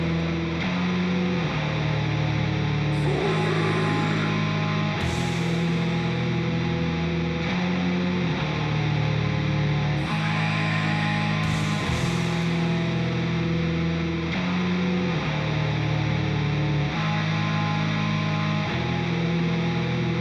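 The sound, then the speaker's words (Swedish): Dense, distorted music plays throughout, with drums washed in heavy reverb; big echoing hits land every few seconds over a steady, droning backing with no voices. “Fan, ni skulle alltså dragit bort lite reverb på trummorna ändå.”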